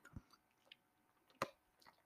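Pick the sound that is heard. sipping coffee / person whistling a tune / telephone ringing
sipping coffee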